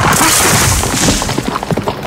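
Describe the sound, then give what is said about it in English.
Loud, dense rustling and crashing of leaves and branches as Guoji's men drop from the trees in deep, dark woods and land on the ground, a continuous noisy thrash broken by several sharp thumps toward the end, with no voices. “As the two moved deeper into the woods, suddenly they heard the sound of leaves”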